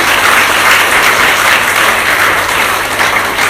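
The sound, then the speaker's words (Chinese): Sustained audience applause, a dense, steady wash of many hands clapping at a constant loud level throughout, with no speech over it, thanking a speaker for a lecture. “所以我希望大家再以掌声感谢陈博夫妇为我们带来的陈立博士，感谢。”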